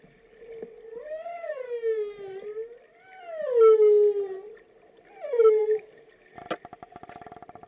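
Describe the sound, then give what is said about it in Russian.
Whale vocalizations: three long, mournful moaning calls that rise and fall in pitch, followed by a quick burst of rapid clicking pulses near the end, with no voices present. “а для вас, получается, вот через секунду звуки китов, чтобы я их вставил подкаст.”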